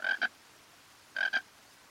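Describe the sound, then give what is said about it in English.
A frog, out of the water, croaks in two short bursts, each made of a quick pair of raspy notes, separated by about a second of quiet. The calls are clear, with no voices. “The buzz of bees and dragonflies fills her ears, followed by the low bellow of a frog.”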